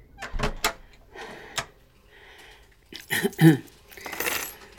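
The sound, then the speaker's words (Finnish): Keys jangle at the front door of a home as someone returns home, in a few quick metallic bursts, then a louder clatter and rattle toward the end, with no one speaking. “Mä laitan avaimet ja aurinkolasit likoon.”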